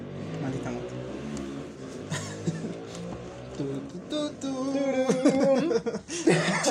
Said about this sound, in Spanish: ¡Puta madre! Ahí sí se mamó, güey, esa moto. Se mamó, güey. Malditas motos, güey.